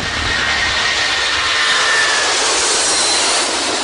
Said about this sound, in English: It all starts with the engine. This plane's about to get going. The pilot is turning the ignition. The engine mixes fuel with air and burns the fuel to release energy.